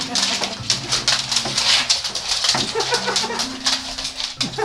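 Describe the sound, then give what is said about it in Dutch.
Ona, a labradoodle dog that turned three in December, whimpers at the door in a steady run of thin, drawn-out whines that rise and fall for several seconds over a faint hissing background. “Dit is, dat is mijn hond.”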